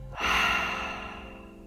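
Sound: deep inhale through nose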